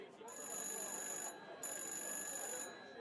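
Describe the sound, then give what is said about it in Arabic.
A telephone rings again, twice, in steady, shrill electronic bursts about a second long, separated by a short pause, over a soft background hum. “التليفون رن تاني”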